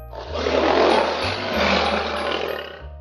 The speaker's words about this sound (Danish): Men Malte han når ikke at sige mere, før løven endelig får lov til at brøle højt fra Maltes telefon.